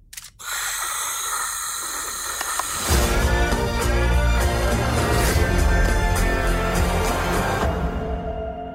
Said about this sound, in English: I can provide sleep sounds if you like. I have several options. Summer night, ocean paradise, whale calls. No, no. White noise is fine.